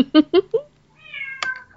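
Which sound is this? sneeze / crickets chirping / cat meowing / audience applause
cat meowing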